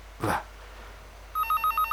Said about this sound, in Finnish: Taas se puhelin soi.